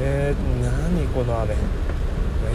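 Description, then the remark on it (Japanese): Steady road noise from cars driving past in heavy, typhoon-like rain hums and hisses in the background, partly masked by a person talking throughout. “はい、えーめっちゃ雨 今この車の走ってる音が入ってると思うんですけど”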